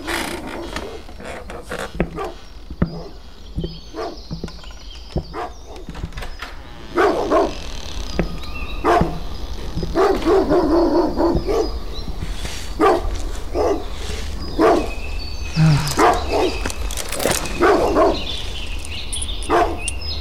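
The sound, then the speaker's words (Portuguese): A dog barks repeatedly in short, irregular bursts over a steady background hum, with occasional creaking noises mixed in; the barking grows louder and busier partway through. “Alguém pode calar esse maldito cachorro?”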